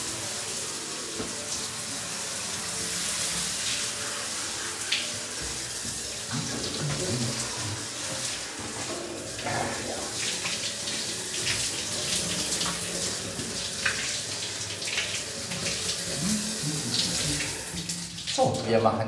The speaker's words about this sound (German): Das wär's jetzt mit dem Duschen.